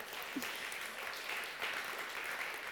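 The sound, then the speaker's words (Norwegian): Steady audience applause, a dense wash of many hands clapping at an even, sustained level throughout, with no voices standing out above it, welcoming a guest up in front of the audience. “vi kan gi han en applaus.”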